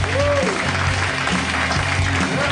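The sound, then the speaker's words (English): A crowd at the end of a live Harmontown show applauds and cheers continuously, a dense wash of clapping with scattered whoops and shouts rising over it, loud and sustained throughout. “Cheer for the Doughboys, Nick and Mitch, Spencer Crittenden, Lauren.”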